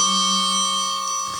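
The second of two small tuned cymbals on a drum kit rings out with a bright, bell-like tone, its steady metallic overtones sustaining evenly before cutting off near the end. No one speaks over it.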